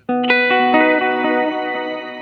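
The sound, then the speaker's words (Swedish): A run of picked guitar notes, roughly eight in steady succession, bleeding into a bright, sustained shimmer reverb pitched one and two octaves up, its high overtones fading up at the end of the tail and ringing on behind the notes. “Och shimmereffekten är nästan att den här, den här, de här övertonerna kommer liksom fejdas upp liksom i, i slutet”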